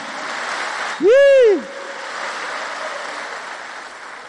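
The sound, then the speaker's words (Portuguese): A crowd applauds God in a steady, dense wash of clapping that continues throughout, briefly topped near the start by one loud voice calling out in a rising-then-falling swoop. “Vamos aplaudir esse Deus bom.”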